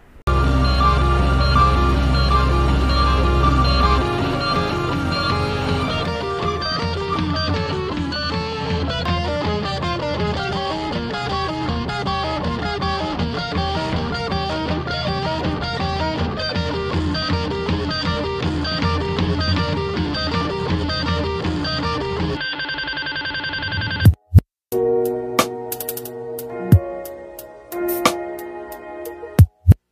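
A rap song with singing plays loudly and continuously over a dense, sustained instrumental bed, then cuts abruptly near the end into a sparser, choppier section with sudden sharp hits.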